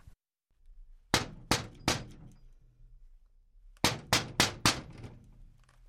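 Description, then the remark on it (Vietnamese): Knocking on the closed door of an electrical goods shop: a woman knocks a set of three sharp, evenly spaced raps, a pause, then four quicker knocks, and no one answers from inside. Each is loud and crisp against a quiet background, with no voices. “Miang Hề gõ cửa mấy lần cũng không thấy ai phía trong”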